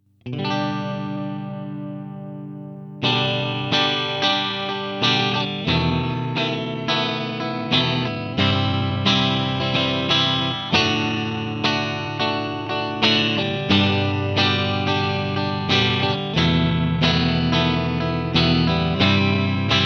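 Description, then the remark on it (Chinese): An electric guitar through an amp with its gain turned down so it stays mostly clean and only breaks up when played hard: a ringing chord lets sustain, then strummed chords with punchy, slightly gritty attacks in a steady rhythm, mostly clean with hints of crunch. No talking. “那除了用音箱的过载以外呢，还可以尝试一下把音箱的增益度啊关小一点，让它处在基本上是轻音，然后弹得很用力的时候，偶尔会破音的这个边缘，大概像是这个样子。”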